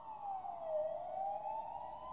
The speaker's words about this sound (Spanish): Eran las 3 de la mañana. Afuera solo se oían sirenas lejanas.